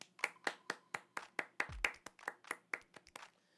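Steady, rhythmic hand clapping in a song, about fifteen sharp claps in an even quick beat, with a brief low thump partway through and no voices.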